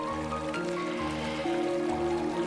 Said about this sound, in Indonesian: Setelah hampir 4 kilo kami jogging, kami melewati sebuah jembatan yang di bawahnya ada sungai dengan air yang mengalir dengan tenang.